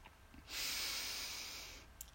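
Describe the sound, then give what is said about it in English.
A single deep inhale taken before chanting the tone "Yam" in a breathing exercise, a steady breathy rush of air lasting just over a second, rising quickly and holding at a fairly loud, even level before fading. No one speaks. “We breathe in and we say Yam as long and as loud as the breath allows.”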